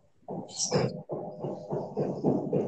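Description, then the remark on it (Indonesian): Muffled, rhythmic thudding repeats steadily, like hammering from house renovation work, with a brief higher-pitched scrape or clatter near the start. No one speaks over it. “Oh iya, lagi renovasi rumah katanya.”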